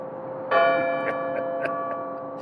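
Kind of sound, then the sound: signal or alarm, church bells ringing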